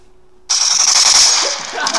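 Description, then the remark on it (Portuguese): After a brief silence, a loud burst of rapid gunfire erupts and rattles on continuously for over a second, with no one talking. “Vou te dar um tiro, pô. É, Quer que eu dê um tiro nele, pô?”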